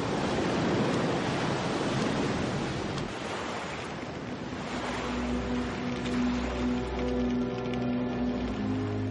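Rough sea waves at Juno Beach crash and churn in a loud, continuous roar of surf, with no one speaking. Partway through, a low steady engine-like hum rises beneath the turbulent water.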